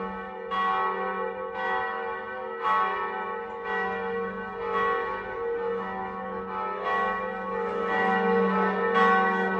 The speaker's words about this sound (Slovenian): Odkdaj pa se slišijo zvonovi sem? Zdaj? Čakaj, čakaj sploh kakšno crkvo blizu? 12 je, 12 je.